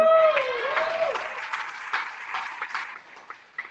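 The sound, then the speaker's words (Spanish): An audience breaks into applause, a dense patter of many hands clapping that starts strong and gradually thins out over a few seconds, with a brief whistle-like tone at the start. “Un aplauso aquí a Gravy.”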